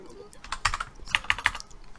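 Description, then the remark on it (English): Clacky mechanical hacker keyboard typing, a quick run of sharp key clicks in irregular bursts with a few louder strikes, and no one speaking. “uh, yeah, I have the I have one of the clack uh, hacker typer.”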